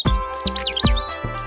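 Birds chirping in quick, bright tweets and warbling trills over a few soft low thumps, with no voices present.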